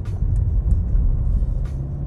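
A car is driven fast, overtaking other cars, with a steady, loud low rumble of engine and road noise. A few brief hisses rise and fade over the constant drone, and nobody speaks.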